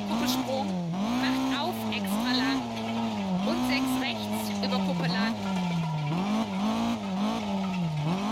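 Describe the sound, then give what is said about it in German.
A car driving on a damaged tire rim, the tire rubber torn off, its engine droning steadily with pitch rising and falling in repeated waves, a continuous rough, scraping rattle layered over it, loud; the car pulls to the right. “Hört sich an, würden wir Hochzeit feiern und mit Dosen am. Äh, äh an der Anhängerkupplung durch die Gegend fahren.”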